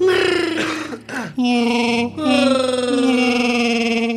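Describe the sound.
A person in a studio imitates Chewbacca's Wookiee roar with their voice, a loud, sustained, warbling growl broken into a few long bursts with brief gaps.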